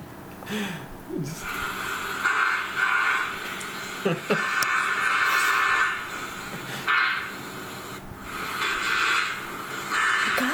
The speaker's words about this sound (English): so basically, he just has the whole video on YouTube, like a minute and a half of um, just him looking at the camera and farting, and I'm gonna play a little bit of it for you